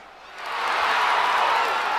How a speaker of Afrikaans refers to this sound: Die families en vriende van al die spelers juig hulle luikkeels toe.